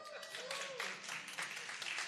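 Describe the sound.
An audience applauds, a dense, steady wash of many hands clapping that runs the whole two seconds, with a few voices calling out underneath the clapping.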